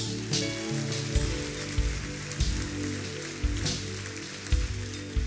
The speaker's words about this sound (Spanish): El que lo crea, dele un aplauso a Dios.